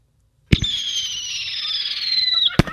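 A sharp pop from the Macy's Fourth of July fireworks opens into a long, shrill whistle that slowly drops in pitch for about two seconds, then ends with a second crisp bang. It's loud, with no talking.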